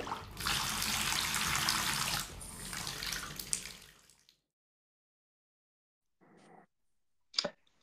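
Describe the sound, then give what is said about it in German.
Cold tap water gushes loudly into a bathtub for about four seconds, then shuts off; after a pause come a short muffled knock and a sharp click. “Wenn ich jetzt noch ein Tröpfchen von dem kalten Wasser haben könnte,”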